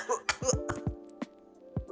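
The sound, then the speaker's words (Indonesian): At night, a run of short, harsh coughs comes in quick bursts, several close together and then a couple more spaced out, over a faint steady background hum. “Banyak batuk ya … malam ini.”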